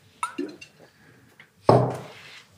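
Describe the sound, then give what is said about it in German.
A few quiet wet sipping and swallowing noises as someone drinks water, then a sharp, louder clunk like a glass being set down, ringing briefly before fading. No one speaks. “ich würde einen Stück Wasser trinken und dann loslegen.”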